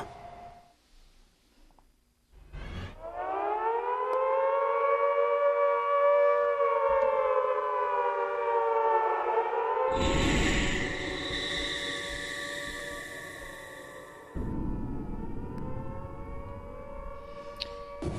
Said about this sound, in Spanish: estamos escuchando ruidos, sonidos de pues la sirena, ¿no? del misil antiaéreo de pues aquellos tiempos de la Segunda Guerra Mundial